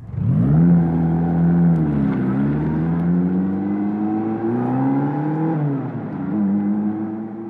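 A motorcycle engine revs loudly, its pitch climbing and dipping in a few sustained surges over several seconds, with no voices.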